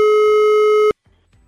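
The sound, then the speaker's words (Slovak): A single steady telephone ringback tone, heard as Europa 2 radio presenters call a listener, sounds loudly for almost a second, a flat electronic beep with a bright harmonic buzz, then cuts off abruptly into near silence. “nám neostáva nič iné, iba zavolať Romankinej cére”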